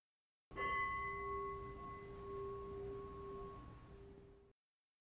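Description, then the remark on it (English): A single meditation bell is struck once to end a meditation and rings out with steady, sustained tones that slowly fade over several seconds, heard alone. “We'll hit the bell to end the meditation”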